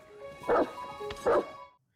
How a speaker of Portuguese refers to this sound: O vídeo começa com um homem a jogar Breath of the Wild no conforto do seu sofá, até que o seu cão latiu duas vezes.